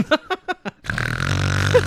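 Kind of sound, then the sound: vocal imitation, person imitating snoring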